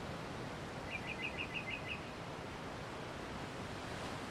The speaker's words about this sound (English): Notice the different sounds that you hear around you the sound of the waves, the wind, the leaves of the trees brushing against each other, maybe some birds chirping.